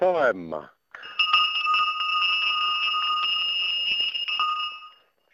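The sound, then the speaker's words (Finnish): A brief voice, then cow bells from cattle in Puolanka, Finland, ringing continuously for about four seconds: a jangling, metallic clatter of repeated strikes over steady ringing tones, fairly loud, before fading out. “No hyvää huomenta Kansanradio ja laitetaanpa puolangalta ja lehmän kellot”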